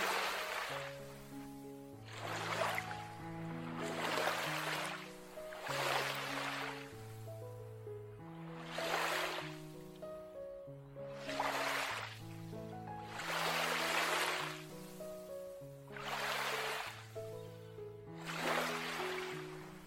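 Soft ocean waves wash in and out in a steady rhythm, roughly every two seconds, beneath gentle sustained music with slowly shifting tones, part of a guided meditation. No one speaks.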